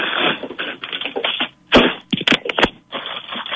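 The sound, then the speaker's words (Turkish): Crinkly rustling of a plastic bag being opened and handled as an item is unwrapped from it, with a few sharp crackling bursts in the middle and continuous rustle before and after; no one speaks. “Hemen açıyorum. Poşetinden açmamışız daha.”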